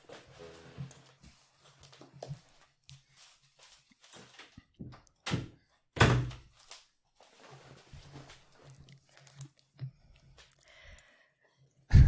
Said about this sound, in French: Ça dérange si je ferme la porte